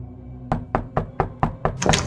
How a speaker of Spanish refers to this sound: Un día tocaron a su puerta, y al abrirla, Flavio vio que era un hombre.